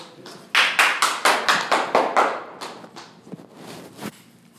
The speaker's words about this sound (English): Keep your hands clapping for the very funny Aaron Trahan, everybody. Yes!